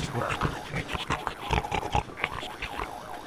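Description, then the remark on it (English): A caged animal growls, a rough, continuous snarl with choppy pulses and short breathy bursts, fairly steady in loudness throughout, with no one speaking. “The animal's growls became louder.”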